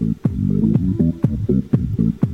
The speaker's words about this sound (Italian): Vabbè, Senti, però se... con questo ritmo cioè, non si riesce a star fermi. Sì, no, però sembra un suono sommesso proprio che arriva dalle profondità della tua piscina idromassaggio. Viene fuori e praticamente fa il giro del mondo.